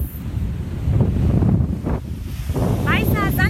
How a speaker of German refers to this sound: Strand, Meeresluft, frische Luft. Genau, Silke und ich stehen hier Venice Beach.